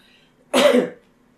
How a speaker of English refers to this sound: About the characters, um, oh I got a cough now.